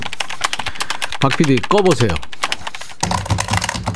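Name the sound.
computer keyboard typing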